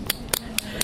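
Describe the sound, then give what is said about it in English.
Paper drink tokens being handled: four brief, crisp papery snaps spaced unevenly over a second, fairly quiet, with no voices. “That was the sound of drink tokens.”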